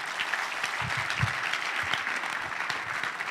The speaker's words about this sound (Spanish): ¿Cuántos pueden decir amén a esto? Amén, aplaudí al Señor, aplaudí al Señor.